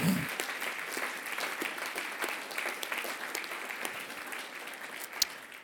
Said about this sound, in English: Okay, let's just, yeah, let's give God a, a, a cheer. Thank you, Lord.